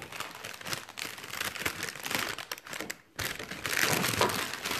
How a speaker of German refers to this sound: Aber ich öffne jetzt erstmal Emmys Kalender.